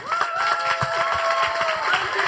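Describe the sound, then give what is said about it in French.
A crowd gives TED-style applause, dense clapping for a couple of seconds, with a long whistle and scattered cheers rising above it. “Et j'aimerais avoir des applaudissements à la TED à partir de maintenant.”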